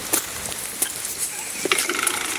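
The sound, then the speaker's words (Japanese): Small hail pellets falling at Ozawa Station, pattering down in a steady, dense crackle, like frying fat, with sharper ticks and clicks popping out now and then. No one speaks. “あられですかねあられですね大きさ的にはあられが降ってまいりました”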